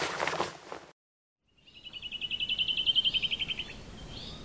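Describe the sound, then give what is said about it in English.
Outdoor ambience deep in the woods among trees: after a short burst of rushing noise and a pause, a bird chirps in a quick, steady, high-pitched trill over a soft, low background hum. “He was deep in the woods. Nothing but trees and the sounds of nature.”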